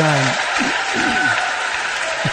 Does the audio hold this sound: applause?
yes